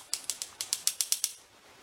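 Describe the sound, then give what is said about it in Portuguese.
A quick run of about nine crisp, snappy snips, like scissors opening and closing rapidly in an even rhythm, clear with no talking. “tesoura vai pegar você.”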